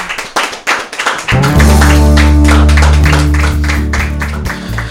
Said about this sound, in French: Je pense qu'on peut applaudir notre invité.